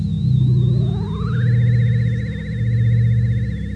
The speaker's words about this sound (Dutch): Ik gebruik alleen even de hologrammachine.